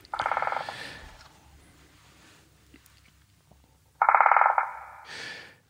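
phone ringing

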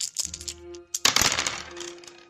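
two dice being rolled

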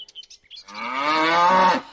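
cow mooing

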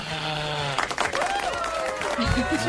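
applause

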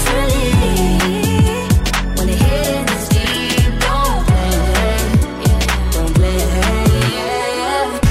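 pop song playing

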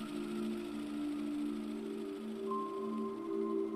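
sewing machine running

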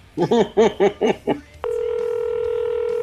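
telephone call tones

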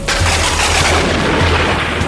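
loud thunderclap

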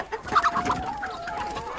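chickens clucking

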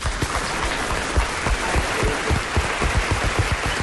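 strong applause

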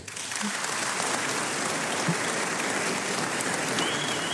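applause

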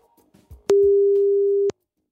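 telephone call tone

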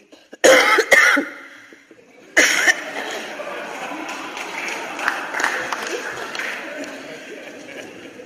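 cough

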